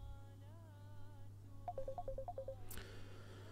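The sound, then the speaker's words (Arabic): An incoming phone call to a live broadcast: a wavering electronic tone gives way to a quick run of about eight short phone beeps, ending in a sharp click, all over a steady low hum on a telephone line. “معنا اتصال ألو ألو اسمعنا من الهاتف أخي صوت مزعج جدا”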